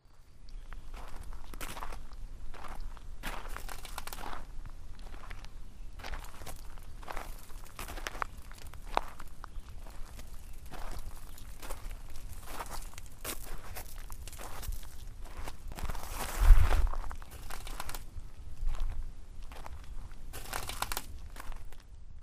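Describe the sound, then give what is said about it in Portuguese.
Steady footsteps crunch across a floor of shattered glass, each step grinding and crackling with sharp, gritty crinkles, continuous for the whole stretch with no talking. “O chão é de vidro estilhaçado.”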